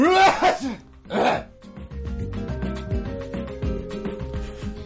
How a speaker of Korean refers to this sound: 아빠들은 모든 행동들이 요란합니다. 세수할 때도 국물을 드실 때도 양치를 하실 때도 재채기를 하실 때도